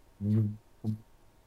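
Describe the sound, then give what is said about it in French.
A voice imitates a diesel race prototype passing along the pit straight at Le Mans: a longer hummed, engine-like tone followed by a brief second burst, fairly loud, then quiet. “Et du coup, à l'époque, tu étais dans, la ligne droite des stands au Mans et tu voyais les trucs, ça passait, ça faisait.”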